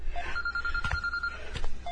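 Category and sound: household object, telephone bell ringing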